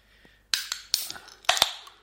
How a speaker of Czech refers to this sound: Na zdraví. Na zdraví. Si čuknem.